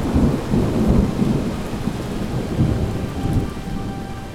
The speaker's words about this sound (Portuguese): Raios, trovões, chuva e mais ventos. E assim uma tempestade iniciou e durou por três dias e três noites sem parar. A maior tempestade de todos os tempos que arrasou toda a floresta.